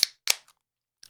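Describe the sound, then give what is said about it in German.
A drink bottle being opened: two sharp, bright cracking snaps about a quarter second apart, followed by a faint click and a short rattle of small clicks. No one speaks. “Okay, ich mache ich mach direkt einen auf für die Leute.”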